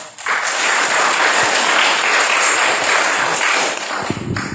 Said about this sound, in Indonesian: kita berikan tepuk tangan yang sangat luar biasa kepada trainer kita yang sangat luar biasa